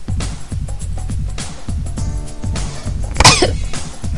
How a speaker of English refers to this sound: Excuse me, I have a hiccup and a cough at the same time.